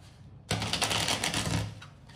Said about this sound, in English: And as we wait, as I shuffle the cards